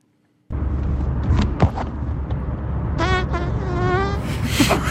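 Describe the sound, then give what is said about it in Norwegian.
A small, sneaky fart lets out a thin, high whine like a buzzing mosquito, rising over a steady low rumbling background for a few seconds. “fin liten smyger. Det var en smyger. som en mygg.”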